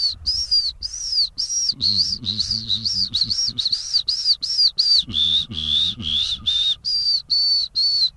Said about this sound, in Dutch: fazant.